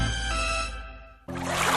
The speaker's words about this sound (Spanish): El océano hoy se ha despertado en calma unas suaves olas, animadas por la suave brisa, mecen a este gran mamífero marino,